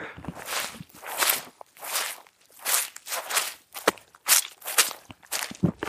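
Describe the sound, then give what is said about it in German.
Wet, squelching footsteps slog through a bog at a steady walking pace, each step a sloppy squish as shoes full of water press into the mud, with no voices. “Und es, meine Schuhe sind direkt voll mit Wasser. Und es hört sich dann alles ungefähr so an.”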